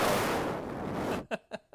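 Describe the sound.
Someone blows straight into a microphone to imitate wind noise: a loud, rumbling rush of breath noise lasting about a second, then a few brief spoken syllables.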